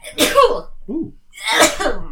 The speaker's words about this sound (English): Sneezes. Sneezes. You're done. You feel better.